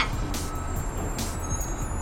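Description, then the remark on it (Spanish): A garbage truck rumbles steadily, its deep engine drone punctuated by a few short, hissing bursts, with a thin high tone running faintly over the top. “¡Ahí viene el camión de la basura!”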